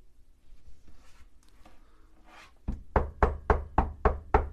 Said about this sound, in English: He says, Here I stand at the door and knock. Will you open?